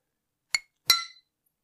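Two bright clinks of glasses touching in a toast, the second one louder and ringing out a little longer before fading into silence.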